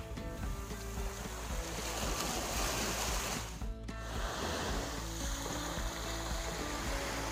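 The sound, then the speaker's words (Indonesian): Waves rush and break continuously on Temajuk Beach in West Kalimantan, Indonesia, on Borneo at the border with Malaysia. A loud, steady surf roar has a low droning hum underneath and a brief lull partway through. No one speaks. “Seperti saat ini saya berada di salah satu pantai, namanya Pantai Temajuk, di mana Pantai Temajuk ini berbatasan langsung dengan negara tetangga Malaysia.”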